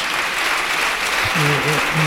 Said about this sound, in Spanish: Bueno, todavía continúan los aplausos. Más aplausos